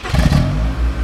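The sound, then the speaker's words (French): A car engine revs loudly, its deep throaty rumble rising and holding steady through a brief burst, with no voices. “Ce genre de pièce est utilisé pour la recherche en acoustique, mais aussi par exemple par les constructeurs automobiles pour tester le design sonore de leur moteur dans son environnement neutre.”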